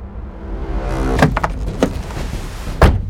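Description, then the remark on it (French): Several sharp car-door thunks and clicks land over a steady low engine rumble, with no talking, as a man climbs back into his car and restarts it. “Ivre de rage, il remonte dans sa voiture redémarre.”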